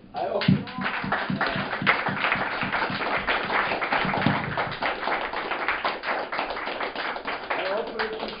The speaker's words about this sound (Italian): Un applauso!